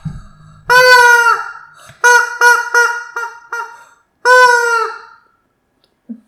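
A rubber chicken toy squeezed, letting out a loud, drawn-out squawk, then a quick burst of four short honks, then one more long squawk. No one talks.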